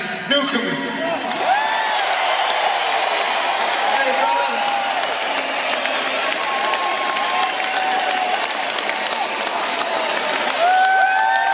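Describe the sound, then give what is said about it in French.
A crowd claps and cheers continuously for a young performer welcomed to the stage, with dense applause and scattered whoops and shouts rising above the noise throughout, staying loud and steady for the whole stretch. “Alors là, la foule qui l'acclame, le jeune, il est là”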